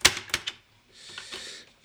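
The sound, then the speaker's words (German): Three sharp mechanical clicks from a cassette recorder in quick succession as a cassette is put in, followed by a soft whirring, hissy rustle of the mechanism running. No one speaks. “Und oh, hast du einen richtigen Kassettenrekorder jetzt hier stehen?”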